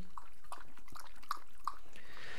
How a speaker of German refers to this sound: So, jetzt noch was zum Thema Hintergrundgeräusche. Also, mein Hund hat sich gerade überlegt, dass er jetzt, ähm, wie ihr hört, trinken möchte.